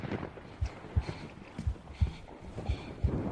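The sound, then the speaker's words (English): Soft, quick little footsteps thud in an uneven rhythm, about one every half second, with heavy, breathy rushes of air between them, all fairly quiet against a low background hiss. “Little footsteps and heavy breathing.”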